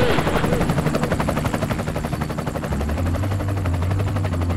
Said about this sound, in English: you're hearing a great guitar player right now.